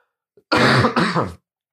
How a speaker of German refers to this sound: kurz einen Hustenanfall bekommen.